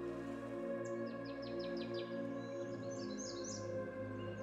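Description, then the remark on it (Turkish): Birds singing softly, a quick run of descending chirps followed by higher warbling notes, set over a steady, even drone of ambient sound. “Masmavi denize, bulutsuz gökyüzüne, kuşları duyun.”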